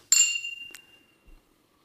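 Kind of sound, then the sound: household object, glasses clinking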